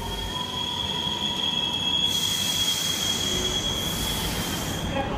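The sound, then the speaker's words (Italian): A metro train's wheels squeal steadily on the rails, a sustained high-pitched screech over a loud rumbling roar, with a brighter hiss swelling midway through; continuous, no voices. “Invece la metro ci lascia proprio lì.”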